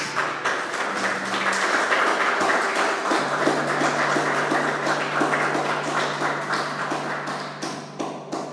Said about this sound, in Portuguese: Você pode aplaudir o Senhor mais uma vez?